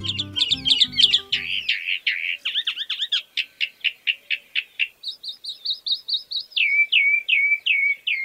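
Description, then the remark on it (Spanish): A calandria grande (Mimus saturninus) mockingbird sings a long, varied song of bright, high whistles and rapid repeated chirps, shifting through several distinct phrases, with a brief low musical sound underneath at the start. “Hoy vamos a hablar de la calandria. ¿Conocen la calandria?”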